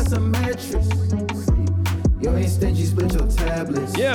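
A snippet of an R&B song: a smooth sung vocal with sliding, melismatic notes over a steady deep bass line and layered synth chords, played loud with no talking.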